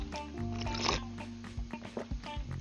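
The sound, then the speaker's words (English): A slurping sip of coffee from a cup, followed by a few short swallowing and handling noises over a steady low hum in the background. “And as uh, my custom, I'm just going to go ahead and jump right in, starting in First Corinthians uh, chapter 2, and we're going to read verses 9 and 10 after Eye take a cup of sip of my coffee here.”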